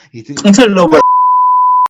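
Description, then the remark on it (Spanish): A person speaks briefly, then a steady, loud censor beep cuts in over a person's name at a single pitch, holds for just under a second, and stops abruptly with a faint click. “obviamente voy a, voy a poner un, pitido en su nombre porque si no la gente va a buscar.”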